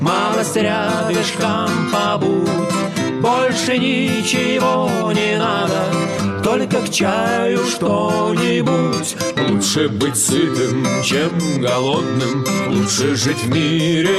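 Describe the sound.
A bard-style song performed by a duo, the sung vocal lines loud and up front over steady accompaniment, playing continuously for the whole stretch.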